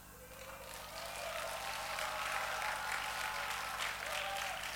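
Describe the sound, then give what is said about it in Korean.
An audience applauds steadily for several seconds, a dense wash of many hands clapping at moderate loudness, with a faint steady low hum running underneath. “박수 받을 줄 몰랐네.”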